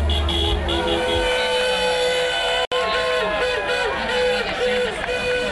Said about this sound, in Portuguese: Mais de 100 carros antigos foram os primeiros a cruzar os 800 metros de extensão.